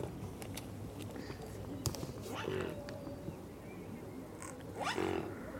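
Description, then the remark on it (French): A monkey sneezes twice, each a short, sharp burst a couple of seconds apart, over a steady hissing background with faint scattered clicks. “C'est vraiment un signe qui éternue là Trop marrant.”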